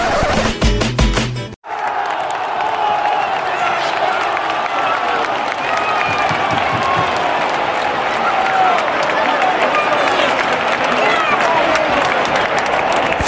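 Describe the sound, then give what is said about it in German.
A large football stadium crowd at Real Betis's Benito Villamarín stadium roars and cheers continuously with scattered applause during a La Liga match against Villarreal, a dense, loud wall of voices heard from within the stands, preceded by a brief burst of noise that cuts off abruptly. “Und dann hören wir uns mal jetzt mal ein bisschen was an, wie es so ein Ticken im Stadion war.”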